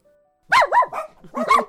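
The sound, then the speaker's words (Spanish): Several pet dogs bark in quick, overlapping bursts, loud and yappy, with a short pause before a final cluster of barks and whines; a faint steady tone precedes them. “Sí, son mis hijos perros.”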